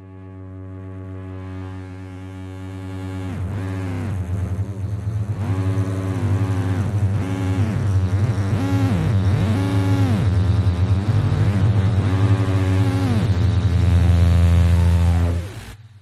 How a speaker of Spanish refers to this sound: Y ahora trabajo por separado en estos tres sonidos. Lo que hago es jugar con ellos. Voy añadiendo ecualizaciones, filtros, campos sonoros, efectos, lo que sea, hasta tener mi propio sonido de la radiación. En este caso, este.